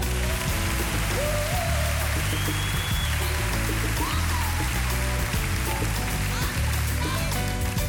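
A crowd applauds steadily and loudly for several seconds, a dense wash of clapping over low sustained music that continues throughout.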